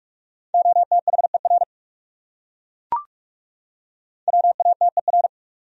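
Two quick bursts of steady mid-pitched Morse code beeps sent at 45 words per minute, rapid dots and dashes, separated by a pause with a single sharp click between them.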